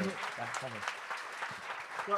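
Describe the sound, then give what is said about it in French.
A crowd applauds in a steady, dense patter of clapping that holds for about two seconds, with people talking and exclaiming over the applause. “oui, oui, on peut, on peut applaudir.”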